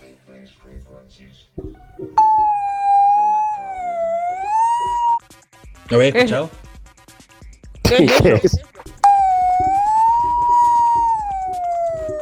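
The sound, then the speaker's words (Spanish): Theremin tones from a touch-controlled theremin app: a steady, rich electronic pitch that slowly swoops and wavers, sounding in two long stretches with a brief question and laughter between them. “un Teremín.”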